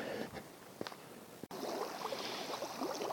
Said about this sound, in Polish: Doszedłem już nad rzekę. Jestem w takim miejscu, gdzie słychać trochę wodę. Nasz kaczawa płynie przeważnie spokojnie, ale jest kilka takich miejsc, gdzie trochę ta woda chlupocze. Tu nie chlupocze tak bardzo, żeby przeszkadzała, ale zawsze to fajnie,